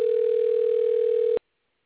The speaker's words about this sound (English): Well, you know, I, I hear the ringing because yes, I was trying I to the show. I'm not sure whether or not. Uh, and it doesn't look like he's answering his uh, phone.